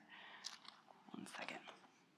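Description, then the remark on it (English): Crackly peeling of stuck book pages being pulled apart, a quick series of papery rips and crinkles lasting about two seconds, with a faint voice underneath. “pages, you're stuck together.”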